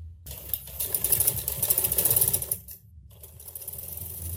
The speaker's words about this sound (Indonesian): Deru mesin jahit terus terdengar dari rumah Hanifa sepanjang hari selama dua pekan terakhir.